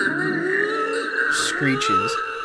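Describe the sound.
A person imitates the screech of a waxy, gator-like creature with a strained, raspy, continuous voice. The cry is loud and held for a couple of seconds, with a few harsh hissing bursts near the end.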